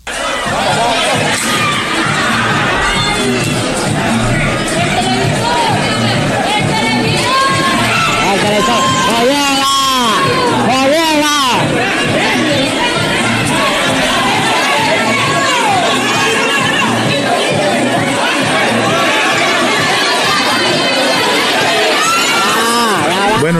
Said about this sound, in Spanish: es una multitud empujando las puertas de un Walmart en Los Ángeles para tratar de entrar y agarrar las mejores ofertas.